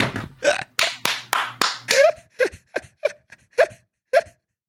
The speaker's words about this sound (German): Den Applaus habe ich jetzt aber nicht verstanden. Warum applaudieren?